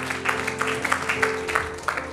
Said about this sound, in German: Hey, komm on, können wir unseren Gott mal feiern, ihm großen Applaus geben, ihm die Ehre geben.